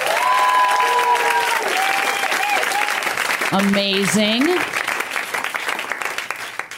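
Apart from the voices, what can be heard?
audience applauding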